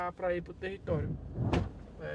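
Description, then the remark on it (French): A locked farm gate on the access road to the Wawa indigenous reserve is shaken once with a short, sharp metallic rattle as someone tries it without it opening. Voices talk throughout, before and after the clank. “Encore une porte.”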